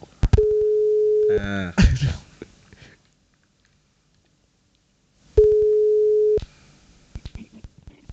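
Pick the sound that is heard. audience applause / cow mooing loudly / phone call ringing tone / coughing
phone call ringing tone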